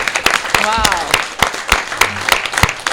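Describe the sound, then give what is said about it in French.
An audience claps for the Rex in a steady, irregular patter of sharp, crisp hand claps at moderate volume, while voices call out and talk over the applause. “et eh bien, on peut applaudir bah, le Rex.”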